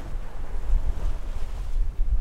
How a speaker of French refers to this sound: Euh, quand je dis ça, évidemment, c'est le moment où les voiles claquent et où c'est pas calme du tout.